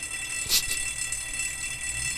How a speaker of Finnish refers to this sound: Mutta siellä on jo joku hälytys. Kuulostaa ihan palohälytykseltä. Nyt jotakin on mennyt pahasti vikaan.